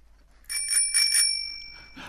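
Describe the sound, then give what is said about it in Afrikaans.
A bicycle bell, rung by a man riding past on his bicycle as he chases chickens, rings four times in quick succession, bright metallic tones lingering and fading, then one softer ring follows. No voices. “'n Man op 'n fiets kom verbygery.”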